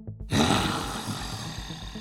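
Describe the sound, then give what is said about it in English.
A loud, rough growling roar from a human voice imitating a tiger charging, bursting in after a brief quiet start and rumbling on for about two seconds, alone. “tiger transforms and charges at you”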